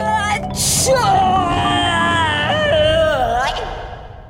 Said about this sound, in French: fit alors le plus gros éternuement jamais entendu dans toute la Franche-Comté.